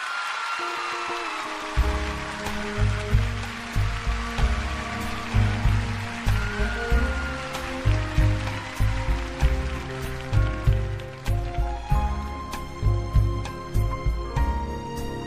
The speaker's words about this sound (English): Ladies and gentlemen, please a huge round of applause for my friend and yours